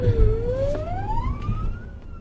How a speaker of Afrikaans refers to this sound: Weet as ons al loeiende sirenes hoor, dat hulp op pad is.